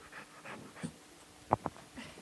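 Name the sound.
dog panting and whimpering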